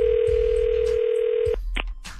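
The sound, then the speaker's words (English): A steady, loud telephone dial tone hums for about a second and a half before a prank phone call, then cuts off, followed by a brief click or key beep on the line. “But right now, the nephew is here with today's prank phone call.”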